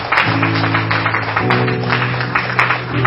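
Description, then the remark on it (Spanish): A church audience claps steadily for the Lord in the afternoon, a dense wash of hands filling the space, while sustained keyboard or organ notes hold underneath throughout. “Le damos un fuerte aplauso al Señor en esta tarde.”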